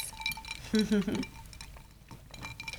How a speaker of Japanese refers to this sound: ちょっと乾杯してちょっと喉を潤したら